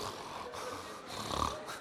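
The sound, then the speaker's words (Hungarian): A person imitates snoring with a rough, rattling inhale followed by a second snore-like burst, fairly loud, with no other talking. “Ne, ne, nem lehet meghatározni, mert mi éjszaka is papként horkolunk, és minden Hát a világ, hát az identitás komoly dolog, az nem úgy, hogy horkolok, már nem úgy horkolok, nem.”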